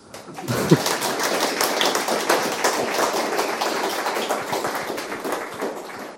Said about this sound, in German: und jetzt kommt ein Applaus.